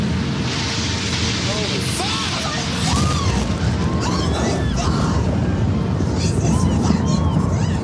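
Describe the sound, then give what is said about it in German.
A deep, sustained roar of a second jet airliner crashing into the World Trade Center in New York on 11 September 2001, just after nine in the morning, and exploding, swelling after a few seconds and rumbling on steadily while agitated voices cry out over it. “Gerade ist ein weiteres Flugzeug in das World Trade Center geflogen und hat damit klargemacht, dass das alles einem Plan folgt.”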